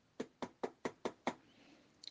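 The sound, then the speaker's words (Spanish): Six quick, evenly paced, solid knocks on a wooden door, followed by a moment of quiet and a faint light click at the end. “una niña llamada Risitos de Oro llegó a la casa de los osos y tocó la puerta”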